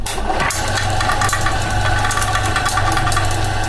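A small electric motor mounted under a car seat on a leg exercise trainer hums steadily with a low drone and mechanical rattling, running continuously and fairly loud as it turns the user's legs, with no one speaking.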